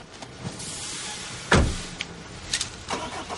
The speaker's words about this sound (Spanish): Saluda a Dennis y sube al coche.